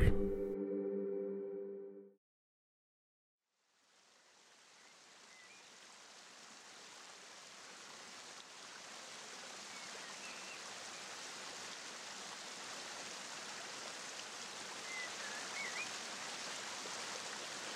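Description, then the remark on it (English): A short chime rings out and fades, then after a pause a steady rushing waterfall swells in gradually and continues evenly, a dense, full wash of falling water with no voices. “Now, listen to the continuous sound of the waterfall.”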